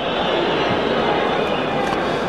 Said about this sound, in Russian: Ну, свистит э, трибуны, свистят, потому что не очень не нравится, что эти крики «Динамо» столько громкие.